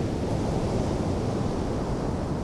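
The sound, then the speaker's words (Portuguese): Steady, roaring strong wind by the sea, on a day that would otherwise be perfect for surfing, buffets the microphone with a constant low rumble, blending with the broad wash of sea surf; no voices, just continuous blustery noise throughout. “Portanto, um dia perfeito. podia ter sido hoje, não fosse o vento.”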